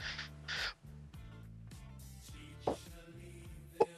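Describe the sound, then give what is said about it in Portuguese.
A chicken clucks in a steady run of short, throaty calls, moderately loud, with a couple of sharper squawks near the end and no talking. “Cara, eu escutei uma galinha carejando.”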